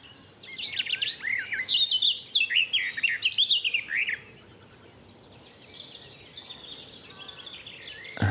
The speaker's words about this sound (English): Thank you, Mr. Garden Warbler.